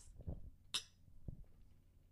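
A single bright clink of wine glasses holding Sledgehammer forged red blend wine from Sonoma, California, touching in a toast, ringing briefly, with a couple of soft low knocks before and after.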